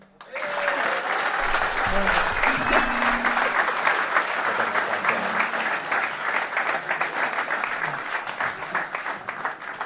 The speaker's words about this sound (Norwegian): Men eh, før vi trekker, så gir vi en applaus til dem som har ordna premien.